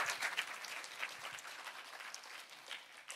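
A church audience claps together to give glory to the Lord during a sermon, a steady, dense wash of applause lasting the whole stretch, a bright crackle of many hands at a fairly soft, even level with no voices over it.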